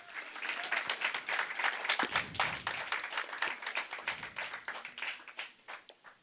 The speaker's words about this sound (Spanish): Dele un fuerte aplauso al Señor si lo cree.